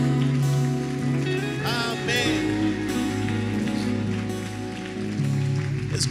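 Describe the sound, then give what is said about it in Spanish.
A crowd claps loudly and steadily for about six seconds as applause to God, a dense wash of hand claps over sustained keyboard chords and a few sliding synth tones. “Porque no le das un aplauso fuerte a Dios?”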